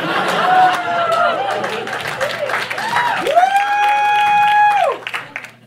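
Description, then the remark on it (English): A crowd claps loudly and steadily, with shouts and drawn-out whoops rising over the applause before it quickly dies down near the end. “That's not the ending, but I do deserve a clap for that.”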